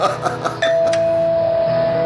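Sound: doorbell ringing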